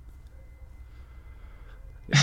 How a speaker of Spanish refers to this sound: ¿Y oyeron las morras que estornudan?